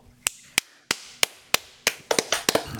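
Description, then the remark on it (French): A few sharp hand claps ring out alone, slowly and evenly spaced at first, then quickening into a short, uneven flurry of clapping at the end. “Applaudissements.”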